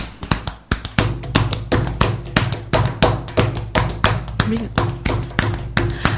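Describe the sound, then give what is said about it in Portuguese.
Steady, rhythmic thumping of hands beating on the chest in time, with listeners asked to beat along, dull low-pitched thuds repeating in a quick even pulse, with a voice singing or talking underneath. “Vou bater aqui no peito, vocês batem junto com nós aí”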